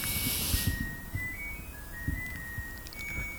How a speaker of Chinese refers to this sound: 我洗衣机响了，你们能听见吗？我的洗衣机响了。Anyway，听不见最好。